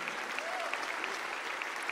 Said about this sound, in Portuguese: Vamos aplaudir esses queridos que estão aqui na frente. Vamos aplaudir forte.